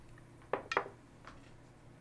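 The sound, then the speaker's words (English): A couple of dice are rolled during a game to determine a character's rations. They rattle and clack across a hard surface in a few quick, bright clicks, with a pause before a final sharp tap. Quiet overall, with no voices. “Roll a couple of dice here.”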